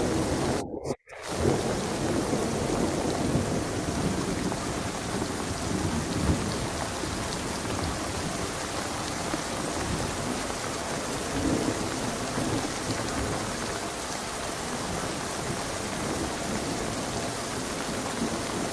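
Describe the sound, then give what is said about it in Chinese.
Heavy rain pours steadily in a windy night storm with deep thunder rumbling underneath, a loud, unbroken wash of noise that drops out for a moment near the start. No one speaks. “下雨打雷的声音，可以稍微听一点”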